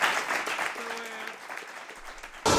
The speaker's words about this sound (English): Then I think everyone, please clap your hands.